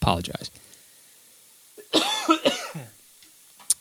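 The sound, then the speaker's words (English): A short burst of a few harsh coughs, somewhat muffled as if away from the microphone, preceded by a brief word from the speaker and followed by a faint click. “I'm going to be uh, coming off the mic for a second. Just a cough.”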